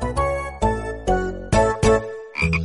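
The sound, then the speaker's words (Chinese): A frog croaks about six times in quick succession, each croak a loud, buzzy, harmonic-rich call with a sharp onset. The last one rises higher in pitch. No one speaks. “都不对，因为我每次听故事都能回答对小青蛙提的问题。”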